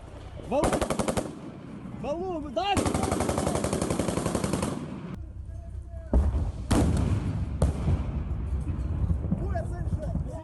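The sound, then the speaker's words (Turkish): Rapid bursts of automatic gunfire from street fighting between Ukrainian and Russian soldiers in Kharkiv, Ukraine, crackle in long sustained volleys, with sharp individual shots and loud mechanical clatter; voices are heard shouting between and under the shooting. “Sokaklarda şiddetli çatışmalar yaşandı.”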